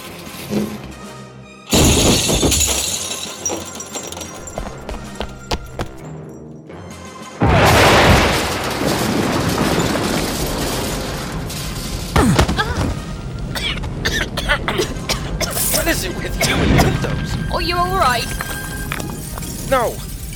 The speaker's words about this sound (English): Hammond, throw that chair through the window.